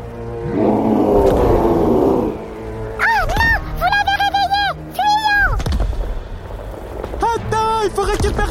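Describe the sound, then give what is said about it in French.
A deep, rumbling monster roar fills the first two seconds, followed by a series of loud, wavering shrieks and howling cries, intense, with a shorter burst near the end: the gloutor creature screaming as it comes out of its cave. “Les cris de Rodolphe et Rodolphine alertèrent aussitôt le gloutor qui sortit de sa grotte en hurlant.”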